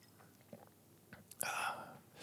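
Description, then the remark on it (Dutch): A few soft mouth clicks, then a short airy slurp as someone sips hot tea, followed by a quiet swallow and breath. “Oké, okay, ik, maar ik, ik moet even, ik neem even een slokje en dan, en dan ga ik er gewoon weer voor.”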